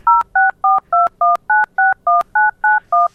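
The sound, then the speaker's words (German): A rapid sequence of about twelve touch-tone telephone dialing beeps, each a short, clear dual-pitched tone separated by brief gaps, loud with no voices. “Haltet, liebe Hörer, jetzt mal euer Telefon ans Radio und wählt noch keine Nummer.”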